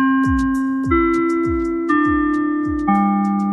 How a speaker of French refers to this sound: Alors, alors, alors, dites-nous, dites-moi aussi, tiens, ben voilà, dans quel pays, la sonnerie du lycée fait comme ça.